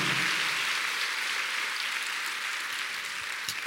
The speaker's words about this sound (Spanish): Eso, dale un aplauso al Señor.